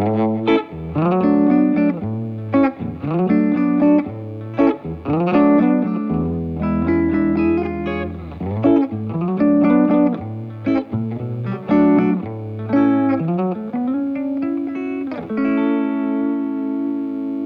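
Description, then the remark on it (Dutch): An electric guitar plays a continuous run of notes and chords through a chorus effect pedal, with a shimmering, wavering, slightly doubled tone. It's steady and fairly loud, with no talking. “Heeft hij ook nog een chorus stand?”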